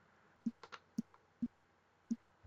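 Several soft, separate clicks spaced irregularly over a couple of seconds as someone types on a computer keyboard to search online, with a quiet background and no voices.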